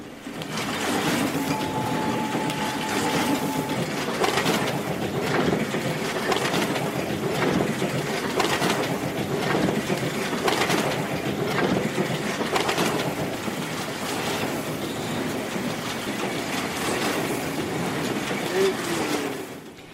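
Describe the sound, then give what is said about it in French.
Printing presses run at full speed in an alley in Chungmuro, a loud, unbroken mechanical clatter with rapid repeated knocks and a steady roar that holds even for the whole stretch. “Et ce bruit des imprimantes qui battent à plein fouet s'est fait de plus en plus rare.”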